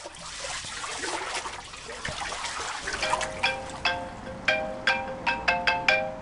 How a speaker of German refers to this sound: Oh, mein Handy klingelt.